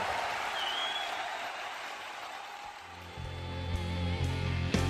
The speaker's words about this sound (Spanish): aplauso para Nacho y Sofía, por favor.